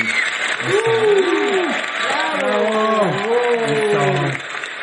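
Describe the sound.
A show audience applauds steadily for several seconds to welcome the day's guest, a dense wash of clapping with voices calling and cheering over it, before it starts to fade near the end.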